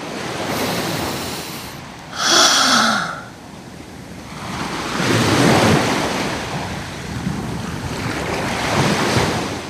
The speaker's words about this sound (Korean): 야, 파도 소리 들리지? 어. 하, 바다만 봐도 살 것 같다, 야.